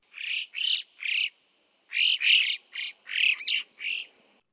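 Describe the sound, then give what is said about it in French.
A series of bright, ringing calls of alpine choughs (yellow-billed choughs), about eight in two bursts separated by a short pause, clear with no other sounds around them. “il y a le chocard à bec jaune, tous les skieurs les connaissent, hein, ça ressemble à des gros merles euh, qui vivent en bande et qui poussent des cris très étonnants, très mélodieux, beaucoup plus que les autres.”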